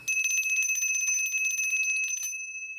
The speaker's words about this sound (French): très à propos avec sa maudite clochette. On voit quand la cloche sonne, hein, c'est qu'il y a beaucoup à faire